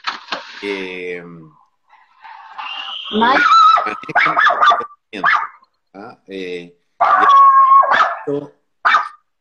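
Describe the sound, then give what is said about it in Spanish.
Dogs bark and yelp as they fight, with sharp overlapping bursts and howling whines coming in uneven clusters with brief pauses between them. “Perrito Hay pelea de”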